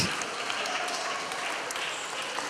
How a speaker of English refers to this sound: Could I just invite my friends up? You might just want to give them a round of applause as they come.